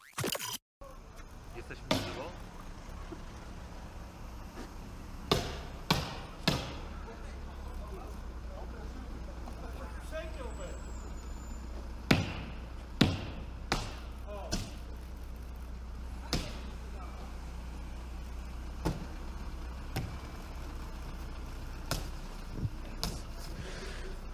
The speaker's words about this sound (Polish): To auto Ubera zostało, no, jak widać, doszczętnie rozbite. Kolejna szyba właśnie pękła.